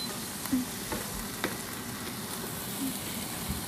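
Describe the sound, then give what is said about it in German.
Bacon crackles and sizzles steadily in a pan, with a few brief scraping clatters as it is stirred, all over a constant low hum of a running extractor fan. “Okay, den Speck immer schön umrühren.”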